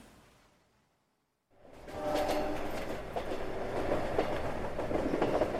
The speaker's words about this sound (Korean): 우리 열차는 잠시 후 영월역에 도착합니다. 소지품을 두고 내리지 않도록 미리 준비하시기 바랍니다.